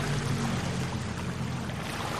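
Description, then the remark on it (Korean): A boat's outboard motor drones over rushing water noise, its low engine hum easing off after the first moment as the boat slows and circles toward another boat, with steady splashing continuing throughout. “그녀는 선외 모터의 속도를 낮추더니 내 배를 선회하며 다가온다.”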